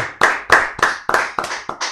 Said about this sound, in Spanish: El aplauso entonces ahí a Marley Coffee, aguante.